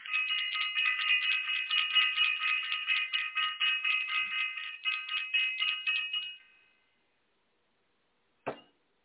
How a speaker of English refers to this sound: I'm going to ring the bell for self-invested